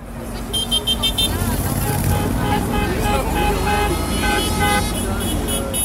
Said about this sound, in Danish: du står altså midt på den her blokerede motorvejsfrakørsel ind mod Paris, og så kan man høre en masse mennesker dytte. Altså ikke fordi de er pissirriterede, men fordi de gerne vil vise deres opbakning til de franske landmænd.